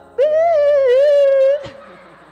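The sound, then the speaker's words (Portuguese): A person imitates a sheep with one long, wavering, nasal bleat lasting over a second, loud, then a brief click and quiet. “Só que quem fazia o back de Davi eram as ovelhas. Tava lá, uma coisa eu quero habitar na tua casa, bé, bé, Aí a ovelha desviada lá.”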